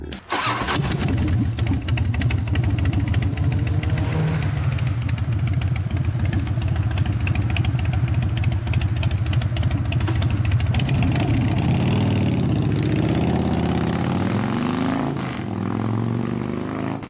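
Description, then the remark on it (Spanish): A motorcycle engine idles loudly with a steady, throbbing rumble, then briefly revs and rises in pitch near the end before settling back. “imagino que ya se dieron cuenta de lo que hablaremos el día de hoy. Y si no, les ayudo un poco. Hablaremos de las motocicletas, pero no de las motocicletas en general.”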